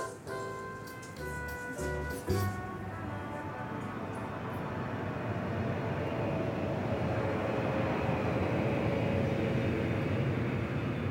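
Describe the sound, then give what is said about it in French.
A loud, steady airplane engine roar fills the whole stretch, opening with a high whining tone before settling into a broad, continuous rumble. No one speaks. “Anna a pris l'avion avant-hier.”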